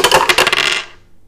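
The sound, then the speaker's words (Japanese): Two dice are dropped into a dice tower and clatter down through it in a quick burst of small, hard rattling clicks, fairly loud, settling after under a second with no voices. “2つのサイコロを振って出た目で、えー、次の、うん、紹介するジャンルを決めるということになっておりますそれでは、えー、ダイスタワーにサイコロ入れます”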